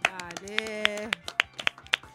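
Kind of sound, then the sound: crowd, clapping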